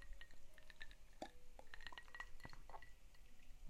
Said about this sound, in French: En tout cas, attendez, je prends une petite gorgée. Est-ce que vous l'entendez Un petit peu ASMR, hein